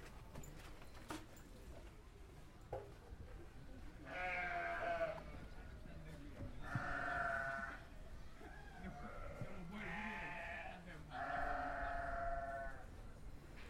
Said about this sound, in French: Le matin de notre deuxième jour ici, je me suis réveillé avec le souvenir du bruit des bêlements des chèvres que nous avions croisés la veille dans le quartier de Médina.